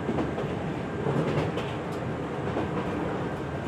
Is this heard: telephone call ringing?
no